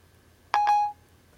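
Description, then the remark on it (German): An iPhone starts dialing a call on its own after a voice command, giving a brief two-part electronic chime: two quick bright tones, the second held a moment longer, clear, with no one speaking. “Detlef Müller wird angerufen. So, er fängt jetzt eigenständig an, dich zu wählen.”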